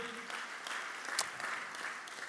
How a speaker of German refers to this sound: Komm on, lass uns nochmal gegenseitig einen Applaus geben. Hey, ist so cool.